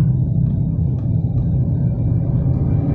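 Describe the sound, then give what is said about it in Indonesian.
Steady low rumble of a car interior while driving in the Permata Hijau area at half past seven in the evening, a continuous loud drone concentrated in the low end with faint higher hum, no voices present. “kepikiran buat bikin podcast lagi di jalan masih di daerah Permata Hijau di dalam mobil dengerin lantunan musik jam setengah 8 malam”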